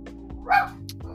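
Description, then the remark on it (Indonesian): A single sharp bark from the speaker's own dog rings out over a steady low background hum, fairly loud, with brief quieter yips around it. “ada anjing gua gonggong gua”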